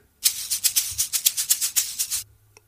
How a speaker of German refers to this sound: Was du jetzt gerade gehört hast, ist übrigens ein neuer Jingle von mir. Ähm, dieses. Das trennt jetzt nämlich die, ähm, ja, die verschiedenen Teile einer Episode voneinander ab und äh, gibt dir und deinem Gehirn das Signal, wieder wach zu werden,